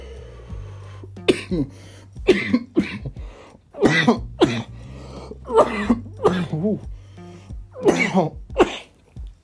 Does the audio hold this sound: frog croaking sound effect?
no